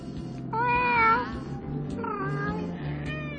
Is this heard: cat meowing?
yes